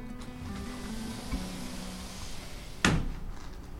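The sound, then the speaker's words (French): A faint tap is followed about a second and a half later by a single solid knock on a door that has no doorbell, fairly loud, over a steady low hum with no talking. “Pas de sonnette. Toc toc Y'a quelqu'un”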